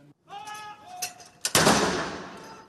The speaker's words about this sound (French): 96 coups de canon sont tirés depuis plusieurs endroits emblématiques de la capitale anglaise.